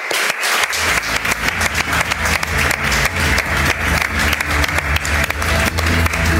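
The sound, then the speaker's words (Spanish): Loud, sustained applause from an audience for advertising creative Tony Segarra, a dense steady wash of many hands clapping that continues without pause for several seconds, with no voices standing out. “Tony Segarra, un aplauso para él.”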